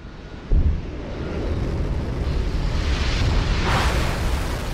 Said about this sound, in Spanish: Escucha el sonido de los cohetes rugiendo y despegando e imagina que estás de pie en la plataforma de lanzamiento listos para un emocionante viaje al espacio.